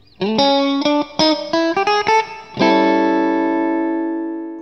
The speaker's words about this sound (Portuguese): Roda a vinheta.